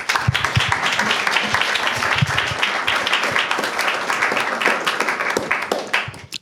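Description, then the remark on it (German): An audience applauds with dense, steady clapping that holds at a constant loud level for several seconds, then tapers off near the end. “Applaus”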